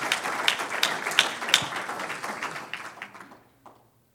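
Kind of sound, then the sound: crowd, audience applauding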